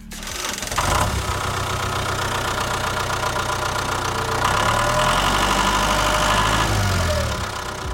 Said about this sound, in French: Des tracteurs qui labourent et sillonnent la terre, la monoculture intensive et les engrais chimiques pour toujours plus de rendement.